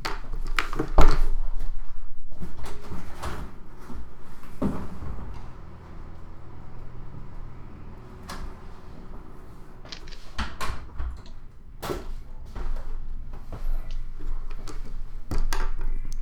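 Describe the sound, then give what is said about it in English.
A door is opened and closed after someone knocks on it, with a scattered series of latch clicks, knocks and dull thuds at irregular intervals, with no one talking. “Okay, whoever knocked on the door disappeared.”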